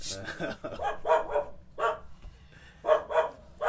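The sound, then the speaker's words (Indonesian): A dog barks in short, sharp bursts, several yaps grouped in pairs with brief pauses between, fairly close and clear over a low background rumble. “emang anjing suara”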